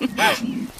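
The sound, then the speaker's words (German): A hungry person's stomach growls, a brief, low gurgling rumble with a rising and falling squeaky tone in the middle, moderately quiet, with no talking. “Oh, das war mein Magen.”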